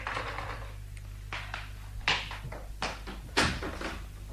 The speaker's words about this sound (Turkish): Kapı çalınıyor.